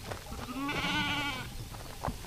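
A single sheep bleats loudly, a long wavering cry lasting about a second, with faint rustling and handling noises around it and no talking, as it is caught and thrown down to be sheared by the Australian method, in about 40-degree heat under a green shade net.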